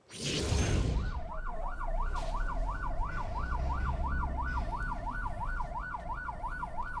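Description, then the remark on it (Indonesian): An ambulance siren wails in a fast, regular up-and-down pattern, loud, over a steady rumble of traffic and engines after a brief burst of passing noise at the start, as the ambulance passes a presidential motorcade that stops to let it through, in Gerobokan, Central Java, Indonesia. “yang sedang menuju lokasi kunjungan kerja di Gerobokan, Jawa Tengah mengalah dengan mobil ambulans yang sedang melintas.”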